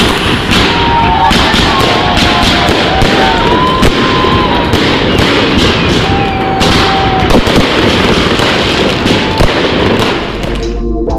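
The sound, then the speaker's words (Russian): A celebratory fireworks salute bursts in a dense, loud barrage of booms and crackling pops, overlapping continuously for several seconds, with a noisy crowd audible in the background. “И «Ваша честь», салют вслух и ликование в вашу честь.”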